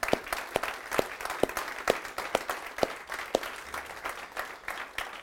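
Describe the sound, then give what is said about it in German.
On Mother's Day, a crowd gives a strong round of applause for the people watching, especially the mothers: steady clapping, with a few distinct sharp claps standing out over a dense wash that holds at a moderate, even level for several seconds. “Geben wir den Menschen, die uns zuschauen, besonders den Müttern, einen kräftigen Applaus, bitte sehr.”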